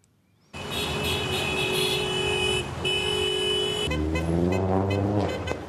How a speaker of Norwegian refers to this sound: Tusenvis av biler har kjørt på den indre ringveien i forbindelse med presidentvalget som holdes 4. mars.